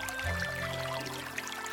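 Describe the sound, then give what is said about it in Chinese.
Spring water in Jinan, China, trickles and gurgles in a steady, low wash, with faint bright droplet sparkles scattered over it. No one speaks. “听，泉水叮咚作响”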